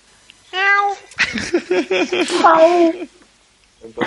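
A kitten meows once in a thin, high-pitched cry, then lets out a longer string of loud mewling meows, ending in a faint short squeak.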